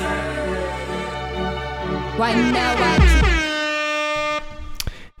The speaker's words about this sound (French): Bah écoute, jingle. Allez. C'est parti.